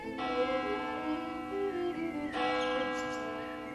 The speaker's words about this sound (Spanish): Las campanas de la catedral resuenan en todo el pueblo y lo convocan a reunirse en el templo.